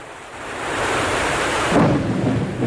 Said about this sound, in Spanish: De paso espero un poco que pare de llover.